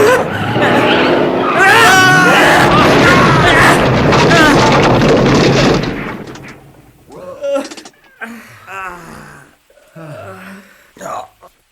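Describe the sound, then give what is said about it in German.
A loud, sustained crash of a vehicle braking and slamming into a rock wall beside a landslide on a slope, with screeching and grinding noise, runs for about six seconds, then cuts off, leaving voices talking in the quieter aftermath. “Du fährst gegen die Felswand!”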